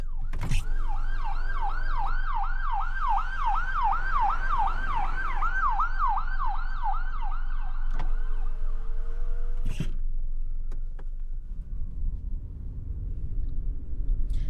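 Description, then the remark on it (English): An emergency vehicle siren wails in a rapid rising-and-falling yelp for several seconds, loud over a steady traffic rumble, then cuts off, leaving engine noise and a few sharp knocks. “There's um, a siren going off.”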